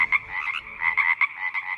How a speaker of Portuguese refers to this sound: E a rã não coacha? Depende da espécie, porque há várias espécies de rãs, mas os sapos são aqueles que mais coacham.